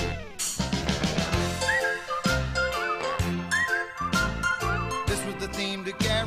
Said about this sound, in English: This is the theme to Garry Show, the opening theme to Garry Show. This is the music that you hear as you watch the credits.